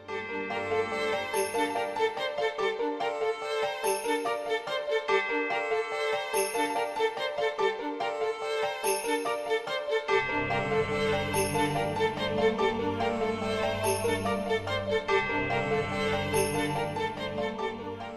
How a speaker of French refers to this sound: notons que aussi on n'en a pas parlé mais dans Xenosaga 1 le morceau du combat du boss final ressemble aussi énormément au même, à la même musique on écoute un petit extrait